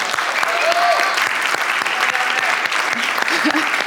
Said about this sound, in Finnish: Rauno voi hengessä kuulla nämä aplodit, niin kuin oli hengen silmiä, niin sitten mutta se on tosi siistiä, että me juhlitaan näitä juttuja, eikö niin?